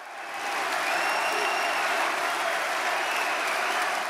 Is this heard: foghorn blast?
no